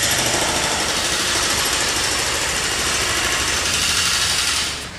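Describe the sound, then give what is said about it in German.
Construction machinery at roadworks in Japan in March, with barrier tape across sidewalks and piles of sand, roars steadily with a dense, grinding mechanical drone and rapid rattling, holding loud and constant before easing off slightly at the very end. No voices are heard. “Plötzlich spannen sich Absperrbänder über Gehwege, Sandhaufen türmen sich auf, Baumaschinen dröhnen, Geruch von heißem Teer und feuchter Erde.”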